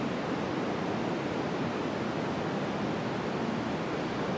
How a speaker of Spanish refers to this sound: Aquí está el white noise, que es, eh, como dije, tiene una frecuencia alta un poquito más pronunciada.